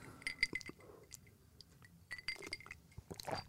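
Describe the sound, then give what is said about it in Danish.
A few ice cubes clink and rattle against a glass of light iced coffee drink in several quick, bright bursts, fairly quiet, with brief pauses between clusters of tinkling. “Der er et par isterninger i, og øh, jeg har sådan lyst til at dufte til det.”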